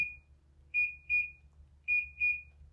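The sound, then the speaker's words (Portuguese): An air conditioner beeps as it is switched off: a single short high-pitched electronic tone, then two pairs of quick beeps, over a low steady hum. “Nossa, vou desligar o ar pra ficar.”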